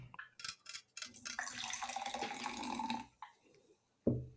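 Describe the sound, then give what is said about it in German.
Nearly clear liquid pours steadily into a glass for a couple of seconds, the splashing tone rising as it fills, with a few brief handling clicks before and a short knock at the end. “Das klingt ein bisschen wie die Beer With Me App. Es war schön Glas eingeschenkt.”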